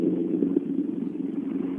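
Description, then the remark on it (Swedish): Lasse Israelsson's rally car drives past, its engine droning steadily, a low, constant growl that stays even in loudness for the whole moment, with no voices. “Ja, han drog förbi här.”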